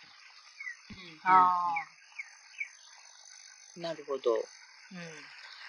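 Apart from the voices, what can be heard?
insects chirping outdoors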